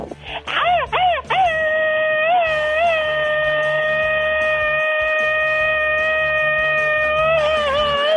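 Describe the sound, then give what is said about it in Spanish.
A voice fires off a quick, staccato burst of rapid yells, then launches into one long, loud, sustained shout held steadily for several seconds before wavering at the end. “Es una persona que le gusta echarse gritos ametrallador.”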